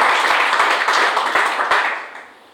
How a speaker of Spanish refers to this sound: Den un buen aplauso al Señor, por favor, esta mañana. Den un aplauso al Señor en esta mañana.